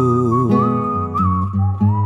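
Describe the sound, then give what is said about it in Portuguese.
A steady whistled melody rides over a warm instrumental accompaniment, holding sustained notes with small pitch shifts, clear and fairly loud throughout with no voices. “e tu já anda assobiando”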